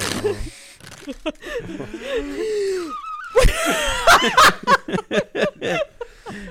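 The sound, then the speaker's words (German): A New Year's Eve party horn blown again and again, giving breathy, airy whooshes instead of a honk in a run of short bursts, with laughter just before. “Das ist meine komische Silvestertröte, die nicht trötet, aber irgendwie driftet die.”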